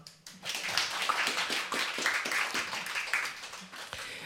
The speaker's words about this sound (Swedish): en applåd.